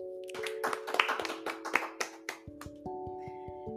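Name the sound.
applause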